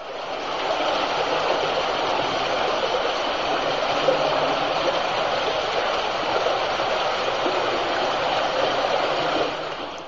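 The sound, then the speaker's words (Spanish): A steady, powerful roar of rushing water from the Fuente Molinos underground river, loud and continuous like a mountain river churning through total darkness underground, with no voices over it. “Primero vamos a escuchar una gota que va llenando poquito a poquito lo que llamamos un gurs, o sea, una especie de volcancito que se llena de agua y que inmediatamente va seguido del fragor del propio río de Fuente Molinos.”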